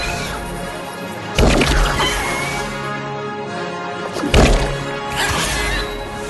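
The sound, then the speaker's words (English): Two loud, sharp smashing blows of a beak crashing down onto a rat's head, collapsing its skull, land a few seconds apart over a steady, busy background texture, with no one speaking. “crashes into the rat's head, collapsing its skull, and its skull explodes into one final indignant explosion of suntan lotion.”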